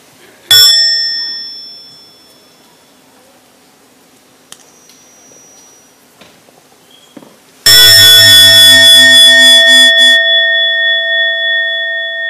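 A meditation bell gets a soft first strike that fades, then a strong second strike whose loud, rich tone rings on with a slow, wavering shimmer.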